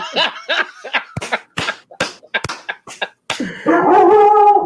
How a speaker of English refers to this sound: Some dogs in his house. Some, some dogs in his house.